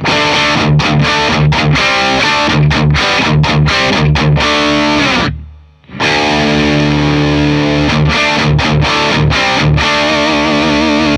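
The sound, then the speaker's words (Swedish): Electric guitar through a distortion pedal with the gain turned down to 11 o'clock and the volume up to 2 o'clock, playing loud rhythmic chords and riffs, with a brief drop-out midway before the playing resumes; no talking. “Jag vrider ner gainen till klockan 11 och så vrider jag upp volymen till klockan 2.”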